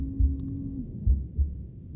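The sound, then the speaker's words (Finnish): A mother's heartbeat as heard in the womb: muffled deep, soft thuds in a slow lub-dub rhythm, heard alone over a low steady hum. “käytettävissä jo kohdussa, jos ajattelee äidin sydänääniä”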